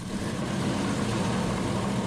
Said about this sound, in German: Sie steht in einer Halle der Technischen Universität Braunschweig und wird Lage für Lage weiter hochgezogen, indem ein Roboterarm mit einer Rüttelplatte das Material verdichtet.